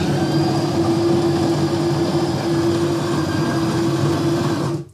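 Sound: coffee machine running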